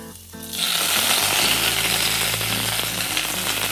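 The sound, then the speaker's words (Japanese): Napa cabbage and king oyster mushrooms hit hot oil flavored with garlic and red chili after a brief quiet hum, bursting into a loud, steady crackling sizzle that keeps hissing to the end. No voices are heard. “ちょっと油がちょっと油が跳ねるので気をつけてここでエリンギと白菜が入りました”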